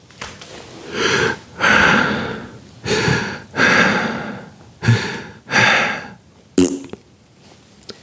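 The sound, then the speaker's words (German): A voice imitates the panicked heavy breathing of an astronaut hiding behind a stone: six loud, ragged breaths in quick alternation, ending with a short sharp burst imitating a fart, and quiet afterward. “hinterm Stein steht, atmet, Panik hat und pupst.”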